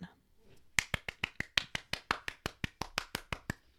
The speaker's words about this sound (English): well, it says everyone claps, so I figured I'm, I'm going with the acting theme.